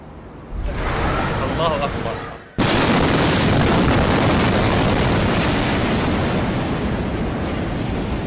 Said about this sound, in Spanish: Las explosiones que sacudieron a Beirut el martes pasado impactaron al mundo por su potencia y por los numerosos e impresionantes videos que se dieron a conocer minutos después de la tragedia.